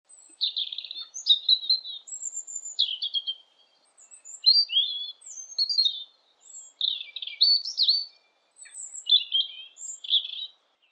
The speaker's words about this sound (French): Continue à dire les oiseaux qui chantent autour de nous. Il y a du pinson. Il y a du rouge-gorge.